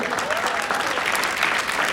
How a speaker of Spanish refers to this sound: un aplauso también para él